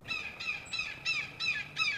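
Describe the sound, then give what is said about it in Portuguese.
A falcon calls in a rapid series of about six harsh, piercing cries, evenly spaced, with no other sounds around them. “Porém, o pássaro que atende ao seu chamado tem uma aparência horripilante. O que antes era um belo falcão agora parece ser um animal em decomposição.”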